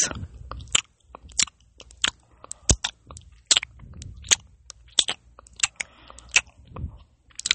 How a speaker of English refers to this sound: I am going to be doing ASMR podcasts all the time, like eating and making mouth noises like this.